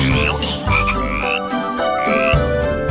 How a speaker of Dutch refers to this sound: Kikkers.